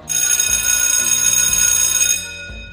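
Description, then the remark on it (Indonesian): A phone rings with an incoming call: a loud, bright electronic ringtone holds for about two seconds over a stepping lower melody, then cuts off abruptly. No one speaks. “Kalau ono bel Ono bel kalau kalau bel”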